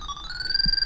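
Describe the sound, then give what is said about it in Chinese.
A bug detector of a type used by investigators in Japan gives its steady electronic signal tone as it is brought close: a continuous high-pitched whine layered over a lower steady tone, sounding alone without any talking. “来看看这个设备吧，听听这个声音是什么样子的。”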